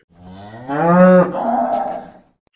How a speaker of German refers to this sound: Die Kuh.